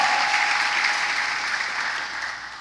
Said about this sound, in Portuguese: Dá um aplauso aí, dá um glória a Deus aí, irmão.